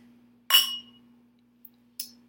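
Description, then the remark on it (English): Two wine glasses of White Girl Rose clink together in a toast, a bright, ringing tap with a short shimmering decay, followed by a faint tick and a softer second clink, against a quiet background hum. “Cheers.”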